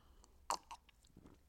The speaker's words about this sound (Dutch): Even een slokje water.